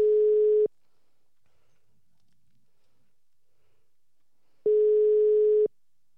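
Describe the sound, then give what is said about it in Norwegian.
An outgoing phone call's ringing tone: a steady electronic tone sounds for under a second, pauses about four seconds in silence, then rings once more, clear. “Kan vi ikke prøve den, da? Høre om han er i live.”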